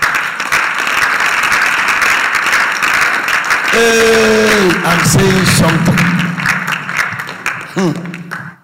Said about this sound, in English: There's a Christian clapping there.